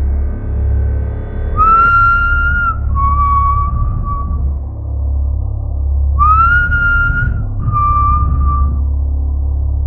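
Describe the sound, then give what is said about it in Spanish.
A man whistles a short tune in two clear phrases of sliding, held notes with a pause between them, over a steady low rumble of background noise. “Al mismo tiempo, el hombre, como si estuviera celebrando, comenzó a silbar.”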